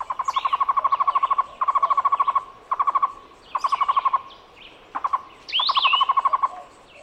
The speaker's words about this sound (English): The Cuban Trogon is a medium sized bird often found in pairs. Its song sounds like its Spanish name, tocororo.